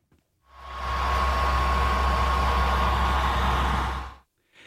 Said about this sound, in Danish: Ja, og altså, udover at min Playstation så tror den er et fly, der skal lette